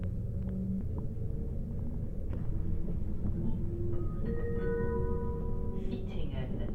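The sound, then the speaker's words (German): Steady low rumble of ambience recorded at a train station and on a train, with faint high whining tones drifting in and out and a few soft knocks, even in loudness. “Ich habe Sachen aufgenommen am Bahnhof und im Zug.”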